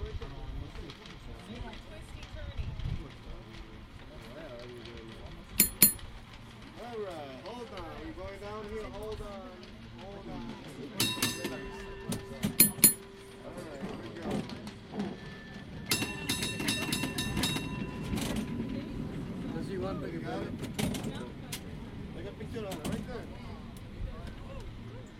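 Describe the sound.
A San Francisco cable car rumbles steadily along its tracks with rattling, clanking metal, sharp bell-like clangs breaking through at intervals, while passengers murmur and talk throughout.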